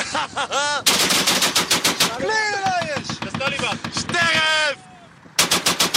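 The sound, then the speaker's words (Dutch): Rapid bursts of machine-gun fire shooting at a car crackle in loud, evenly spaced volleys, pausing briefly between bursts, while excited shouting voices cut in over the shots; from the 2010 documentary Fucking Hell. “Oh, mijn auto beschoten.”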